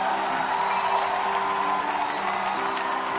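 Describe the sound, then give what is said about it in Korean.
An audience applauds steadily for a few seconds to welcome a guest onto a show, in a dense, even wash of clapping, with a low sustained musical tone running underneath and no one speaking. “네, 박수 부탁드리겠습니다.”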